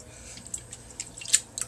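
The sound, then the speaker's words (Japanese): Soft wet splashes and drips of water as rice is washed by hand, a quiet irregular sloshing with a few sharper splashes, with no talking. “お米研ぎと読んだ本の話”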